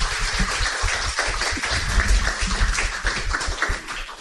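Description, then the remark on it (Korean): An audience claps together for a guest speaker at the end of a talk in a dense, steady burst of applause that holds at a fairly loud level for several seconds, with no one speaking over it. “큰 박수 네, 부탁드리겠습니다.”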